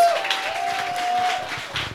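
An audience applauds steadily, a dense wash of many hands clapping at once, with a faint sustained tone running underneath and no clear voices standing out.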